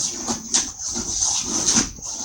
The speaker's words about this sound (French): c'est quoi ce bruit euh, euh, C'est mon chat, je crois.